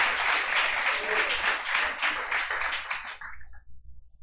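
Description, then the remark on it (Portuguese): A crowd applauds the Lord in the evening, bursting into sustained applause, many hands clapping in a dense, bright wash that holds steady for about three seconds before fading out quickly. “Aplauda ao Senhor nessa noite.”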